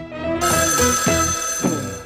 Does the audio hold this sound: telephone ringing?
yes